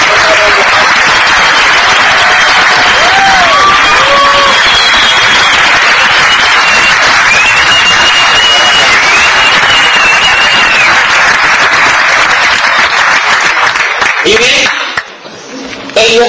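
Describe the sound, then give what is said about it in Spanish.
A crowd bursts into sustained, loud applause of recognition for a group of people, dense clapping filling about fifteen seconds with scattered cheers and whistles rising over it, then it cuts off abruptly near the end. “De manera que yo quiero pedirles para ellos un aplauso de reconocimiento.”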